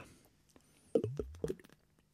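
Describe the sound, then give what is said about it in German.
Two distinct gulps as someone swallows beer after a toast, a short pause between them, heard alone against a quiet background with no talking. “Ich trinke ein Bier und es war schon lange nicht mehr so nötig wie heute.”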